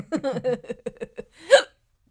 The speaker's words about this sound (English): I definitely have the hiccups.